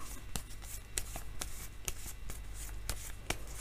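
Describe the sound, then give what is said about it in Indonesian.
Tarot cards are shuffled and an advice card is drawn for Cancer, a quiet run of crisp papery flicks and soft slaps at an uneven pace, with no voices. “kemudian kartu nasihat untuk cancer”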